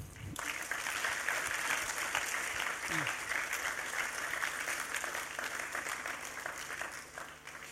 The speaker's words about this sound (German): Ich würde gerne so zum Abschluss Applaus mitgeben.